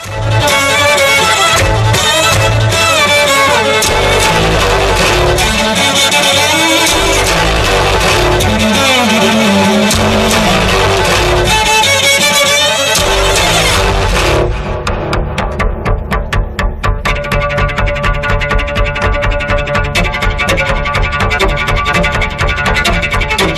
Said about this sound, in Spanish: Sí, porque además no, hay ni orquesta ni nada. Están ellos dos a pelo con sus dos chelos y reproducen exactamente la locura de una tormenta, de los truenos sonando y de la angustia que podemos tener e inesperada tormenta en pleno verano.